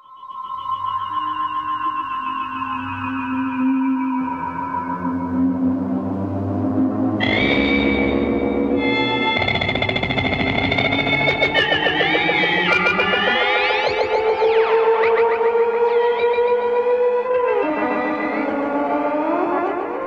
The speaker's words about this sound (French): ce sont les auteurs de la bande-son d'un film mythique que j'aime d'amour, Forbidden Planet, en français, Planète Interdite. Le film date de 1956